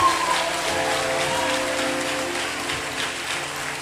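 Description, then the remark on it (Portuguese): An audience applauds God during a church sermon in a steady, dense wash of clapping from many hands, sustained and fairly loud throughout, with a faint tonal hum underneath. “Dá glória a Deus bem forte. Aplaude o teu Deus, aplaude.”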